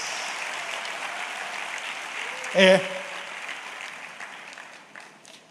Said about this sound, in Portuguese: Dá sua melhor salva de palmas para Jesus.